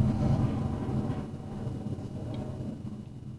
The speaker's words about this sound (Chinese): 有有飞机声，就是那个战斗机。